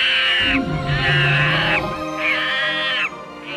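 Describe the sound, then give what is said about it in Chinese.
A leopard's low, rumbling roar sounds beneath a series of loud, shrill monkey screams in the quiet of the night. Three long screeching calls rise and fall in quick succession, with no voices present. “寂静的暗夜，偶尔会传来花豹的吼声，猴子的尖锐叫喊。”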